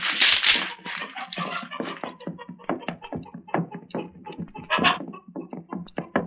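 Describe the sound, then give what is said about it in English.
A flurry of loud, harsh chicken squawks from a chicken run opens with a bright burst, then continues as rapid, scratchy cackles and flapping-like rustles for several seconds, with no one speaking. “Hey, is that chicken squawking?”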